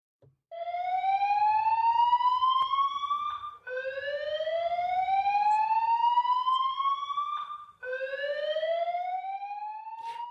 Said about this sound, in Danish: Ja, det vi hørte her var lyden af en brandalarm, og øh, da både Fris og jeg har boet i Washington D.C. og været vant til at høre brandalarmer, så vækker det visse minder.